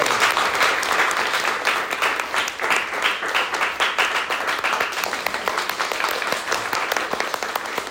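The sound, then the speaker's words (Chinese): Sustained applause from an audience at a training course, given to thank everyone present, a dense wash of many hands clapping steadily for about eight seconds at a fairly even, loud level, with no voices standing out. “好，那是借各掌声来感谢我们所有的大家我们的贵人，谢谢。”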